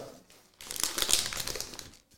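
The plastic wrapper of an individually packaged chocolate cake made by Kuchenmeister GmbH crinkles and crackles for about a second and a half, a bright, busy rustle that starts abruptly after a brief quiet pause, with no voices.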